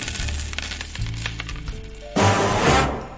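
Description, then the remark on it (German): A coin drops and bounces with bright metallic clinks, a quick ringing patter of several small hits before a louder rushing, jangling burst near the end. No voices. “Spanne er die Pferde ein und spute sich, denn springend klingt die Münze.”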